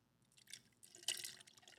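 Liquid is poured close to the mic for ASMR: a soft, splashy trickle that starts faint, then swells into a brighter splash with drippy, glassy detail before easing off. No one speaks.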